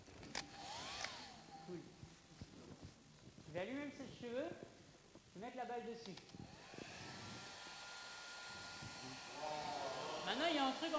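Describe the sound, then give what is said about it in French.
A person talks briefly, then a hair dryer, used in an experiment with a ping-pong ball, whirs on, its motor pitch rising before settling into a steady, loud rushing blow that continues and grows slightly louder to the end. “Un sèche-cheveux.”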